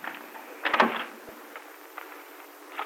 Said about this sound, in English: I'll close the door